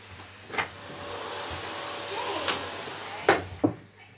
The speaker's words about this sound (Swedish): Nu dammsuger de här ute i hotellkorridoren. Vi ska se ifall hon kan få tyst på dem.